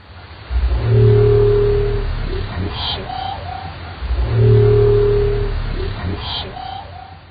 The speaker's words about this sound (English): Experts think it's a new type of dwarf minke whale call we've never heard before.